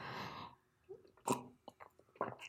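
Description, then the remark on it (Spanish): A soft slurp of someone sipping lemon tea, followed by a few quiet swallowing gulps and mouth clicks spaced over the next two seconds, with no talking. “Ya me eché otro traguito de mi tecito de limón.”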